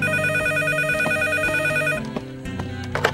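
telephone ringing

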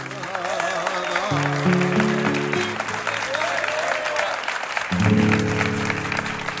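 applause

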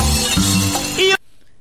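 glass breaking sound effect

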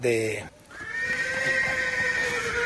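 horse neighing

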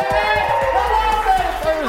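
crowd cheering

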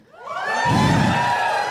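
audience cheering and shouting

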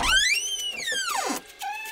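door creaking

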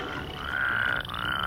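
frogs croaking

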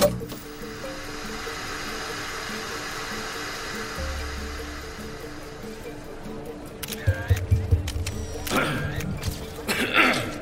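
river water

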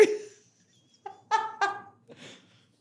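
goose honking

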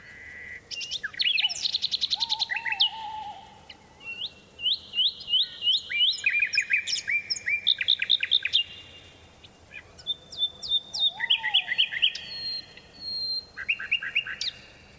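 bird song

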